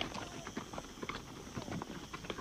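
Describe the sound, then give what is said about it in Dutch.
Horses walking at an easy pace, their hooves clip-clopping in a steady, overlapping rhythm, moderately loud, with no one talking. “Ah, ze lopen vanzelf mee, je hebt verder weinig aan te doen.”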